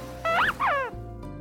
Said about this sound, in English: Hey, wait a minute. Where'd that squeak come from? Mikey, you were under Dante's pillow this whole time.